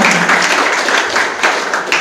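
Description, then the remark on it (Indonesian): Steady applause from a church audience at a Sunday service in 2022, clapping for God: a dense continuous patter of many hands clapping at once, fairly loud, sustained for the full two seconds without talk. “Kita puji Tuhan karena Allah yang telah memelihara kita selama dalam dua tahun ya kita tidak bertemu beri tepukan bagi Tuhan Haleluya”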